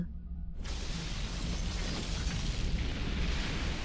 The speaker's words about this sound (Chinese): 陈西风坐在船舷边，看着礁石爆炸。